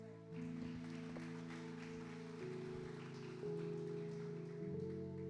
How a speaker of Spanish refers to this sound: Dense un aplauso, por favor.